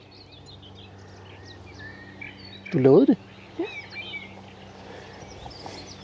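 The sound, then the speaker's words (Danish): A nightingale sings by a lake, its varied whistles, trills and chirps running steadily and softly throughout, while two people exchange a few brief words in the middle. “Det er jo, nat, du, det er jo nattergal.”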